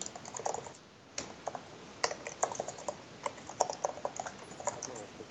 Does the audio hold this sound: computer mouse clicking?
yes